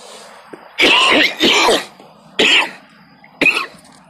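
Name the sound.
coughing and throat clearing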